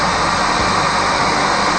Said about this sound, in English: Uh, that's the static from the end of transmission when Bruce Willis gallantly committed suicide to save the world and his beloved daughter.